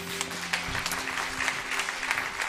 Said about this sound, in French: est-ce qu'on pourrait juste euh, applaudir très fort pour saluer tous les internautes qui nous regardent